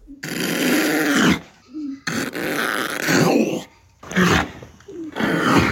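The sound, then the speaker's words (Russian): A two-month-old female seal pup at Riga Zoo growls angrily in protest at zoo staff, not wanting to be taken to Ventspils, in a string of loud, rough bursts, each lasting about a second, separated by short pauses, with no talking. “Возмущению тюлененка нет предела.”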